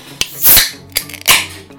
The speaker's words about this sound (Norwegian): Men nå som vi eh, ikke er ute, så kan vi jo åpne en øl òg.